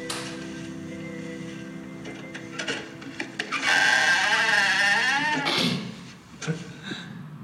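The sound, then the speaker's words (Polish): Gravel crunches and creaks in several rough, noisy bursts over a steady background hum, with a wavering voice-like tone rising in the middle before the crunching fades. “Ale myślałem, że będzie jakaś śmieszna kwestia po tym skrzypieniu żwirza.”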